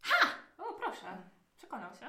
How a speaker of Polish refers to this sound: Słyszycie szczekanie psa w momencie, kiedy zbliżacie się do tej zagrody.